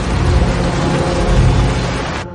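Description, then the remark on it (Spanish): A truck drives along a road at a power plant, passing between fire trucks and approaching the rubble of a collapsed area, with a steady, loud low engine rumble and broad road noise that hold constant throughout, with no voices. “El camión avanza por una carretera de la central.”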